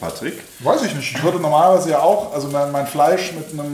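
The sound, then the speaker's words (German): Vegan Sensational Burger patties sizzle and crackle steadily in hot vegan, butter-flavoured Alba oil in a pan, a continuous hiss running underneath conversational speech for the whole stretch. “Man muss jetzt vielleicht dazu sagen, wir braten mit Albaöl an.”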